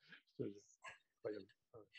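Wolves in the desert yip and bark in a string of short, harmonic calls, several bursts over two seconds with brief gaps between them, moderately loud, with thin hissy noise around them.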